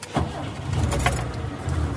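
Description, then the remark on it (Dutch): A vintage car engine cranks and catches, settling into a steady low rumble, with a few clicking transients near the start and no talking. “Start vlot.”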